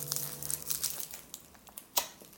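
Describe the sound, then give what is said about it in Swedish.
Dry crinkling and rustling, like plastic or paper being handled, with a series of irregular crackly bursts and one sharper crunch near the end, heard alone without talk. “Den här gången är det du som prasslar.”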